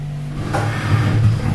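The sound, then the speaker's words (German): An already unfolded folding chair is pushed into position across the floor, scraping and shifting with a low, rough rumble of metal and wood, starting with a sudden knock. “Ich habe hier zwei Klappstühle.”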